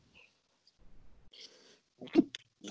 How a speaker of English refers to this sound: Oh God, I'm sneezing all over the place.